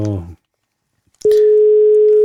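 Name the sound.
telephone ringing tone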